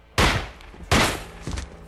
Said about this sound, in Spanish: Entra con una mirada decidida, abre la puerta y pasa del cuchillo al arma. Le dispara en la cabeza a su progenitora.